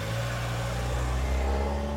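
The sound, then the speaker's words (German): A car engine runs with a steady low hum that swells slightly as it revs, as if pulling away, as a departing student gets into the car. No voices are heard. “Evas Schülerin verspricht, in Kontakt zu bleiben und steigt ins Auto.”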